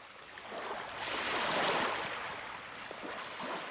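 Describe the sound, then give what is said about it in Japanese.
Ocean waves wash onto the shore in a steady, hissing roar that swells to a peak midway and then eases back, as a stone is thrown far out into the waves, with no voices present. “姉の恋人はその石を波の奥の方まで投げた波の音に石は飲み込まれた”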